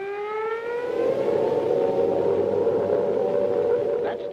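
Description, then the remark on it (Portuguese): An air raid siren in England during the Second World War winds up into a loud, steady wail, its pitch climbing over the first second and then holding high and sustained against a faint rumbling background. “Este é o som que se tornou parte da vida de cada homem, mulher e criança na Inglaterra.”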